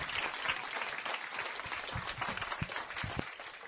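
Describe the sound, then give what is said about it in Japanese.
Audience applause at the close of a live talk event with a guest author fills the whole stretch, a dense, steady crackle of many hands clapping at once, fairly loud with no talking over it. “大きな拍手でどうぞありがとうございました”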